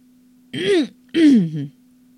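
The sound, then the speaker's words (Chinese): A person clears their throat twice, two short voiced "ahem"-like bursts with a falling then rising pitch, the second a little longer, over a faint steady low hum, for the story character Afo clearing his throat. “阿佛清了清嗓子。”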